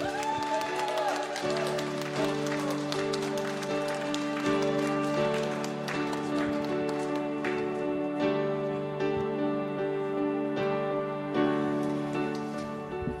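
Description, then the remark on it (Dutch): A crowd claps steadily for about thirteen seconds in applause for the Lord, a dense patter of many hands, over sustained keyboard or organ chords that hold underneath the whole time. “Zullen we nog één keer de Heer een applaus geven voor de overwinning die Hij gaat geven hier?”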